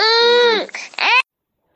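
A baby wails loudly in two strained bursts, the first long cry trailing downward before a brief break and a second sharp cry that cuts off abruptly.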